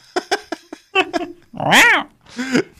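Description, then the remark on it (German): After a few quick spoken syllables, a person imitates a tiger growl: a loud, rough roar that rises and falls, followed by a second, shorter growly burst. “war ein Fruchtkätzchen, ein Tigerchen.”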